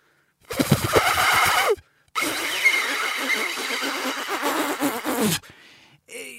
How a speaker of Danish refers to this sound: Ja, det var mit endnu mere forsvindende, nærmest ikke eksisterende forsøg på at spille papirsugerør.